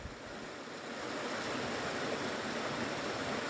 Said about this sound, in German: Das ist ein sauberer Bach.